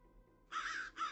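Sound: flock of crows cawing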